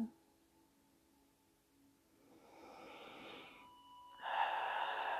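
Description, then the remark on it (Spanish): A slow, deep breath drawn in, a brief pause, then a fuller, louder exhale during a guided relaxation breathing exercise, with no talking. “Respira profundamente conmigo.”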